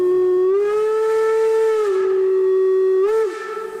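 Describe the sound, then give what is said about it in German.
A long, loud steam locomotive whistle on the locomotive's final run, ending at 17:12 on 29 October 1988, blows steadily for several seconds, its rich, reedy tone dipping slightly in pitch before cutting off near the end, with no talking. “Diese letzte Fahrt endet 17.12 Uhr am 29. Oktober 1988. Mit einem langen Pfiff”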